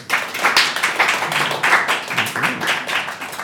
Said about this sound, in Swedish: Alla som håller med i den här frågan applåderar. Förstår ni? Betyder det några konstigheter? Nej. Vi kan testa. Förstår ni frågan? Applåderar.